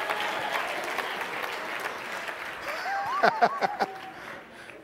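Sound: audience clapping hands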